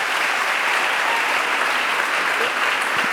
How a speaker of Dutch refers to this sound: Mag ik één ding zeggen? Dat jullie daarvoor klappen, dames en heren, dat siert jullie niet.